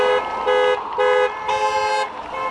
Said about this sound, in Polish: więc to na przykład masowe blokowanie ulic i tworzenie niby korków w mieście, to uporczywe używanie klaksonów samochodowych.